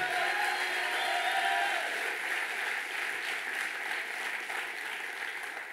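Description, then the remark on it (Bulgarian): Sustained applause from an audience in a church, a dense wash of many hands clapping at steady volume, with faint crowd noise and no clear speech. “О, мъже, които трябва да ръкопляскат по-силно, докато проявявам тук.”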